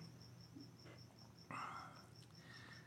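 Crickets chirp in a steady, evenly spaced pulse throughout, high and fairly faint, with a brief louder bird-like call breaking in around the middle over a low background hum.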